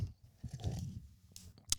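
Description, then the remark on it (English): Close-up drinking and swallowing of water, with wet gulps and mouth sounds right at the microphone, ending in a couple of sharp clicks. Nobody speaks. “Drink that drink that water closer to the mic if you could.”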